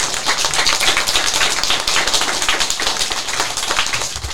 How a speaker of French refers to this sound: 6 ans, voilà, il n'y a pas d'âge pour démarrer et faire une chronique sur Prissé Radio. Je crois qu'on peut vraiment applaudir euh,